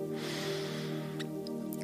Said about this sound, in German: Atme nochmal mit mir zum Abschluss dreimal ein und aus. Wir atmen nochmal durch die Nase ein